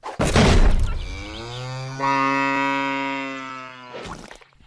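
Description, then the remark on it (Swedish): A sudden noisy whoosh as a strapped-up cow is launched by a slingshot at the press of a button gives way to one long, loud cow moo that holds steady for several seconds, then ends in another brief rush of noise. No one speaks. “Och medan vi pratat har du passat på att spänna upp en ko här bakom oss.”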